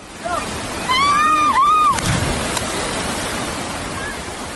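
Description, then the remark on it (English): Steady rushing water roars throughout from a waterfall in Costa Rica as a person dives off a cliff into it, while a brief high, wavering voice cries out near the start above the constant splash and hiss. “He once posted pictures on social media of him diving off a cliff into a waterfall in Costa Rica, holding hands with his then six year old daughter.”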